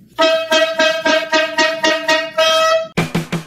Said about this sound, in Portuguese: você fala depois da corneta aleatória, tá?